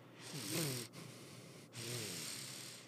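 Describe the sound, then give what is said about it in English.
A voice imitates a whistling nose on the out-breath: two airy exhales with a thin wavering squeak in them, separated by a brief pause, with no talking, mimicking a man breathing through his nose while holding a camera steady. “you can hear his like nose whistle as he's breathing, like trying to keep the camera steady.”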